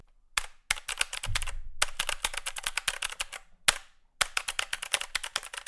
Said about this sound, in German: Die Black Widow V3 Pro habe ich übrigens selbst zu Hause und was soll ich sagen? Besonders in Verbindung mit den mechanischen Switches ist das einfach nur ein geiles Spielgefühl. Ich meine, hört euch das mal an.